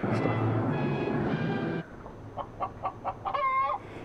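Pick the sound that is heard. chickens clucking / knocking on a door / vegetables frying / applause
chickens clucking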